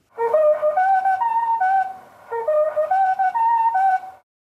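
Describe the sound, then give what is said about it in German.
A short radio traffic jingle, aired between 1979 and 1984, as played in a household in 1981 and captured on an old tape recording of an extortion phone call: a bright melodic tune of stepping notes, played twice in a row, clear and fairly loud with no voices. “so hört sich der Jingle an, wie er 1981 bei Familie Hermann abgespielt wurde”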